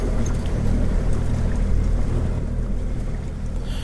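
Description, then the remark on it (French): A fishing boat's motor runs steadily on the water, a continuous low rumble with a constant drone and some wind and water noise, with no voices. “T'as tu de chauffer le bateau”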